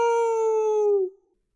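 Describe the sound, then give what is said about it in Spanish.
A single drawn-out, sung meow imitated by a voice: one steady, clear tone held for about a second that sags slightly in pitch before cutting off, with nothing else around it. “eso es un gato.”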